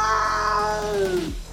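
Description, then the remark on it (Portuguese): A single drawn-out cat meow, loud and tonal, holding a steady pitch before sliding sharply downward and cutting off, with no talking over it. “ele vira gato e faz um miau!”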